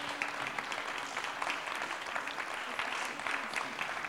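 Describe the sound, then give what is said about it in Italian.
Steady audience applause at the closing thanks of a festival's fourth edition fills the whole stretch, a dense wash of many hands clapping at an even level with no pause, and no voices rising above it. “Io vi saluto così faccio salire magari la squadra Grazie ancora un applauso davvero.”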